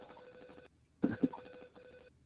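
A telephone rings in repeated electronic bursts, pausing briefly before ringing again; the tone is steady and moderately loud, with no one speaking over it.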